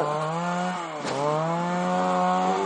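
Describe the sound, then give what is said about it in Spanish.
A chainsaw runs loud with a steady buzzing drone, briefly dipping in pitch around the middle as it bites into holm oak wood, then revving back up, clearing brush in the hills while collecting firewood, not felling trees. “Y bueno, como puedes observar, como puedes escuchar, estamos aquí con la motosierra descombrando no estamos talando ningún árbol.”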